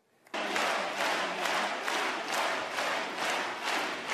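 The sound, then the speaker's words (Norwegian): A large crowd gives the Fillot couple a standing ovation, bursting into sustained, loud applause after a brief quiet start, the dense clapping swelling in a steady, slightly rhythmic pulse, with no voices on top. “Støtteerklæringene fra partikameratene varmet nok da ekteparet Fillot ble møtt med stående applaus etter at Penelope Gate var blitt et fenomen.”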